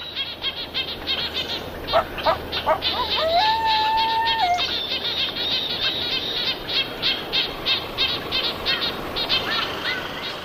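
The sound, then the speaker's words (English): Layered birdsong from several species in a natural habitat over a steady natural hiss: repeated bright chirps and trills, a sustained whistled note around the middle, and overlapping calls from several birds throughout, with no one talking. “Biophony, the collective sound of species in a given habitat”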